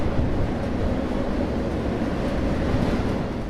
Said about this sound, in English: I lay on my stomach and let the train rock me to sleep.